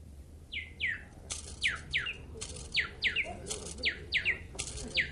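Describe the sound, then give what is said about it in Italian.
A mechanical wind-up nightingale, set with precious stones and driven by a spring inside, sings a bright, repeating tune of quick descending whistled chirps in steady rhythm, clear over a soft background hum, with no one talking. “Oh, è sorprendente questo uccellino meccanico. E che purizza di canto. Ripete sempre lo stesso motivo, però.”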